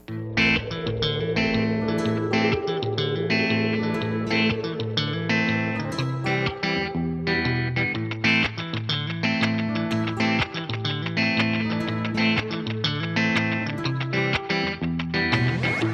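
A song plays at steady, full volume: a dense band with a sustained low bass line, bright distorted guitar-like tones and regular percussive hits, all effects-heavy, with no voices heard.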